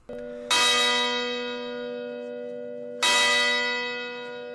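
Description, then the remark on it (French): A small bell is struck twice, about two and a half seconds apart, marking the start of a spoiler section; each strike is bright, with a long, shimmering ring that lingers between hits. No voices. “dans la partie spoiler avec euh, une petite cloche pour vous indiquer que de bah, d'arrêter là”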